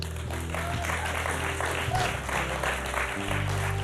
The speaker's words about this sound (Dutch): Maar ik geloof dat we een kerk zijn die altijd dankbaar is. Omdat het altijd en eerst start bij wat Jezus voor ons gedaan heeft. En laten we Hem een groot applaus geven.